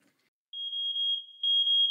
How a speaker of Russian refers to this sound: Внимание, пожарная тревога. Срочно покиньте помещение.